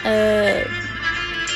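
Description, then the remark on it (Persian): A solo instrument plays sustained, singing notes of the old Azerbaijani folk melody Sari Gelin, slow, steady and fairly loud, with no other instruments or voices. “بچه ها صدایی که دارید میشنوید در بکگراند صدای من ملودی ساری گلین هست با تک نوازی”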